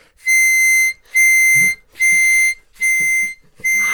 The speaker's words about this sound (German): das ist irgendwas zwischen Fis und G, hast du gesagt? Und das ist Rauchmelder.